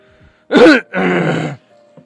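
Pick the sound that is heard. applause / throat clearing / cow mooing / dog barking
throat clearing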